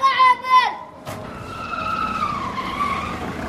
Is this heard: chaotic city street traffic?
yes